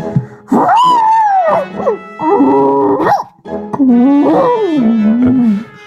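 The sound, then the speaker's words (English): A voice imitates a muffled, hiccuping scream: loud, pitched wails that rise and fall, broken by short catches and gasps across several seconds, with no talking. “And anyone listening would hear a very muffled hiccup filled scream.”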